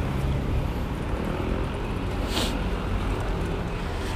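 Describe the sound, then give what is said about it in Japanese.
Strong wind buffets an outdoor microphone in a steady, loud, low rumble that roars on without pause, with a brief harsher gust near the middle. No one speaks. Recorded while walking through Asakusa, Tokyo, toward the Mokubatei theater on a very windy March 5, around 11:30. “風の音がすごい。”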